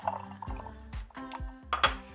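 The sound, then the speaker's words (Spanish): Mineral water poured into a wine glass holding natural syrup, lemon and a few ice cubes while making a drink, with bubbly gurgling and a few clinking, glassy knocks as it fills. Fairly quiet, no voices. “Vamos a poner en nuestra copa el jarabe natural, limón, poquitos hielos y posteriormente agregamos el agua mineral.”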